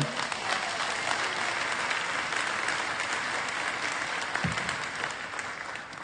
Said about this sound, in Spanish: Eso merece aplaudirle al Señor.